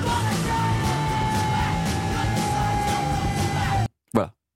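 A loud, dense stretch of rock music with shouted, yelling vocals over driving drums and a sustained tone, cutting off abruptly into silence before a brief final burst.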